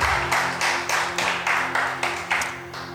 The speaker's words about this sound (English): Can we give the Lord a clap offering? Amen.